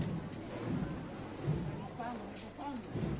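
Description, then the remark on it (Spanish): A steady, soft hiss of light drizzle falling during a procession, as costaleros carry the Paso del Santo, with a low rumble underneath and faint voices murmuring in the background. “Cuidado que sigue lloviznando.”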